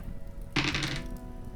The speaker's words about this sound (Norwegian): Da tar du et prøvekast og ser hvordan det går mot vilje. Skal vi se. Da skal jeg ha under 11 her på to terninger.